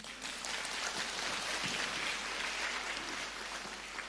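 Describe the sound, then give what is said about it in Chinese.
Steady applause from a crowd during a talk about Kunqu opera, a dense crackle of many hands clapping that holds at an even, moderate level for about four seconds with no talking. “此处可以有掌声。”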